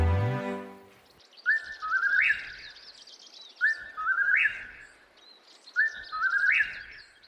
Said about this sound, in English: judging the time for three whippoorwill calls. The beetle waited for a spell as the forest considered the evening, and waited, and then it heard the distant happy call.